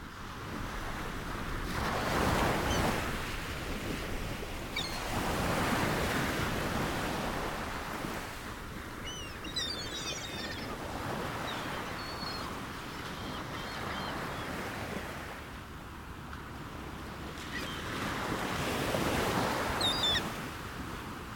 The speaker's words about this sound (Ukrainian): Весняний ранок. Море ти на морі.